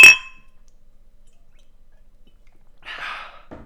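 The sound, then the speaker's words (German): Glasses clink together once in a toast, a bright ringing chime that fades within a moment, followed by near silence and a soft breathy rustle toward the end. “Prost.”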